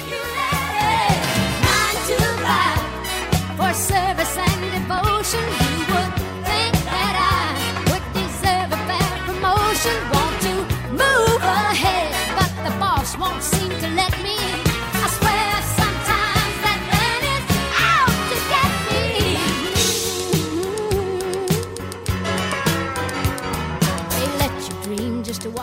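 A country pop song plays loudly and steadily for the whole stretch, with a full band, a driving beat and a lead vocal singing over the music.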